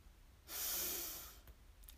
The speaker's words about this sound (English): And let's take a deep breath in